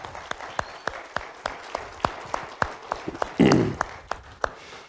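Audience applause with sharp claps landing in a steady, almost rhythmic beat, and a brief louder burst of noise partway through before the clapping continues.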